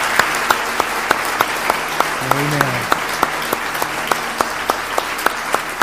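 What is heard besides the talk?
audience applauding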